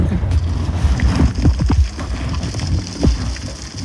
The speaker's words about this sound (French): Tout ce bruit qui ressemble à de la pluie sur un velux est en fait tous les invertébrés qui recouvrent le sol.